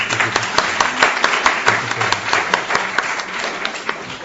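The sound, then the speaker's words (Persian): An audience applauds steadily as a performer is invited up to recite a ghazal from the Divan-e Kabir, many hands clapping in a dense, even patter with a few sharper claps standing out; the clapping holds at a fairly strong level throughout with no voices over it. “تشریف بیارم برای اجرای غزلی از دیوان کبیر تشویق بفرمایید”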